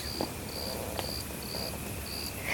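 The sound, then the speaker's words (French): Crickets chirp steadily in repeated high-pitched trills in a moonlit garden at night, several bursts spaced evenly over a couple of seconds, soft. “et maintenant, dans une atmosphère d'une incroyable pureté, la lune, sur son déclin, éclairait de façon extraordinaire le jardin, immobile, désert et silencieux parce que les, grillons et les grenouilles faisaient justement partie du silence.”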